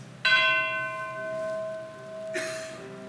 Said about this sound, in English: And as he's staying home, he hears the bells.